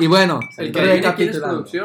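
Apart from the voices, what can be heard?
glasses clinking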